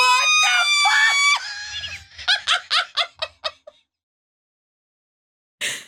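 A loud, high-pitched scream from two people lasts over a second, then breaks into a quick series of breathy, laughing bursts before fading to silence and a brief final outburst.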